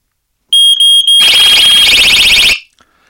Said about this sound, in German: Sie haben gehört, der Feuermelder hat kurz vorher angefangen zu piepen und dann fing die Alarmanlage an fürchterlich zu kreichen. Das heißt, auch die bekommt das per Funk.